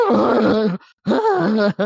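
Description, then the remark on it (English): A voice imitates a character wheezing and yelling while running from men chasing him: loud, strained yelling and groaning in two drawn-out bursts separated by a brief gasp, the pitch wavering up and down like someone panting and hollering while running. “tell you that the part I laughed at is when he's uh, being chased by the guys that uh, that are trying to get like extort him for money, and he's just randomly like wheezing and yelling.”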